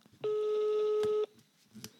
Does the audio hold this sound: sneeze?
no